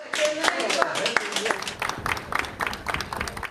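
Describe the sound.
A small group claps steadily for a few seconds, dense, with voices chattering and calling out over the applause, as an 84-year-old man, Tunceli's first coronavirus patient, is discharged from hospital after 25 days of treatment.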